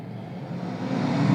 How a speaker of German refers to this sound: Geben Sie Gas, Crocker. Ja, aber die Ampel, Chef. Fahren Sie!